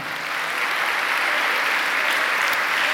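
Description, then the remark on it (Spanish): Steady, dense applause from an audience giving a round of applause to Christ during a sermon, many hands clapping at once in a continuous wash of sound that holds an even loudness for the full three seconds, with no voices standing out. “Denle un aplauso a Cristo, aleluya.”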